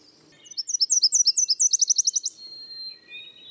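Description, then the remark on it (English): A tiny Nashville warbler, flying to its nest with a fat caterpillar in its beak, sings a bright, high song: a series of evenly spaced two-note chirps that speed up into a rapid, ringing trill, clear, followed by faint background birdsong. “A tiny Nashville warbler flies to its nest, a fat caterpillar clamped in its beak.”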